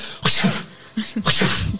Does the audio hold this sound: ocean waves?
no